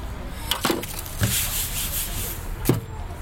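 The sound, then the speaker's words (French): Crêpes cooking on a griddle at a free hot meal shared with neighbourhood residents: a steady sizzling hiss, broken by three sharp scraping taps of a spatula against the hot surface. “les crêpes d'Yvette. Je ne résiste pas à vous les faire écouter”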